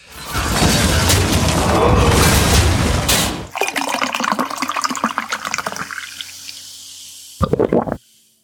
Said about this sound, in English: But without further ado, let's pour a drink and jump in.